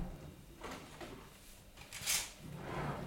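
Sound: drawer opened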